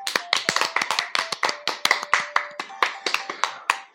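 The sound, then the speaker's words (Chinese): Hands clap rapidly and continuously for several seconds, a dense stream of sharp, crisp claps in a slightly uneven rhythm, with a faint steady tone underneath and no talking. “为了这个小小的目标的达成，我们鼓鼓掌吧。”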